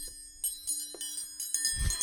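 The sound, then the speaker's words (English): A small bell, rung to announce an email, is struck several times in quick succession so its bright metallic tones overlap and linger, with a soft low thump near the end and no voices. “Hey everyone, that's the email bell.”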